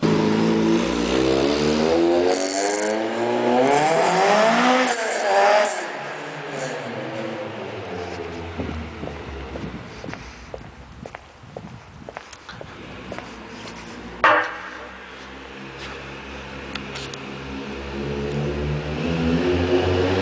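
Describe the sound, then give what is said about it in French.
A powerful 200-horsepower car engine revs hard, its pitch climbing steeply as it accelerates, then fades into rough road noise before the engine swells again toward the end. No voices are heard. “200 chevaux qui avaient le feu au cul. Hein. le moteur, il avait, la santé, et c'était vraiment, c'était vraiment fou.”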